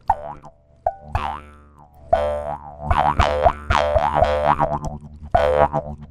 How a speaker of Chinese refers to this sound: 对，哦，啊，那口簧琴它是这样子的声音。